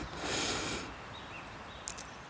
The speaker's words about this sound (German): Lehn dich entspannt zurück, schließ die Augen oder such dir einen Punkt im Raum, wo du was Schönes siehst und dann atmen wir mir einmal tief durch die Nase ein